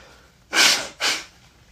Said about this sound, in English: Now, I know, it's like I'm gonna blow my nose.